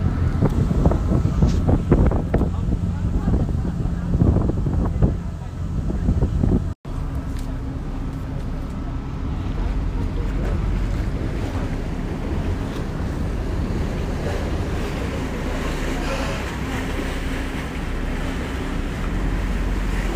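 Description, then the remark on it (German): A ferry of line 64 (Finkenwerder–Teufelsbrück) chugs across the water approaching Finkenwerder, its steady engine rumble mixed with rushing wind buffeting the microphone and splashing waves, continuous throughout with a brief cut partway through. “So, wir legen jetzt zwischenzeitlich hier an ähm, im Rüschbad mit der Fährlinie 64, Finkenwerder, Teufelsburg und zurück.”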